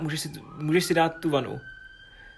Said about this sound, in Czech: to je sanitka